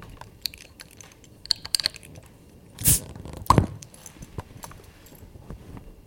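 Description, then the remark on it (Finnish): A bottle with a plain silver crown cap is pried open: light clicks of handling, then a sharp metallic snap and a short burst of fizzing hiss as the cap comes off. No one speaks. “Ja se kuulostaa tältä, kun se avataan.”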